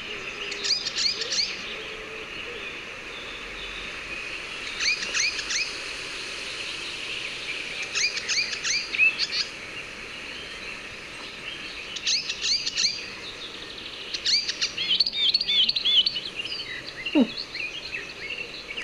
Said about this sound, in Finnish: tämä voisi olla kyllä kultarinta